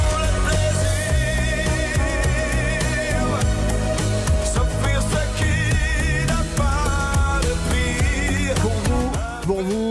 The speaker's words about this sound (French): Un autre titre des années 80.